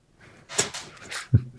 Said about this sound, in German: Nee, ich quietsch nur. Das ist mein Stuhl.